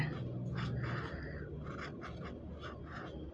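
A fountain pen nib scratches across paper while drawing, in a steady series of short, raspy strokes, quiet and crisp with no voices.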